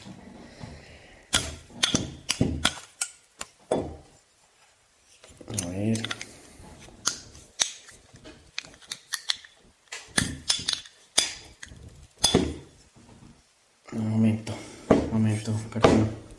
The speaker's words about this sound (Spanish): Pues es una bebida que no es alcohólica. Y es de Emiratos Árabes. Entonces vamos a probarlo. Bueno, entonces como no tengo con qué destaparlo, vamos a hacerlo a la antigua. Vamos a hacerlo con esta cuchara, a ver.